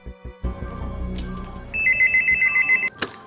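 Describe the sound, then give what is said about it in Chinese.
A telephone rings with a rapid, warbling electronic tone in quick pulses for about a second as a call is made to the police, preceded by soft thumps and handling noise, then a final click; no one speaks. “定了定神，马上拿出电话报了警。”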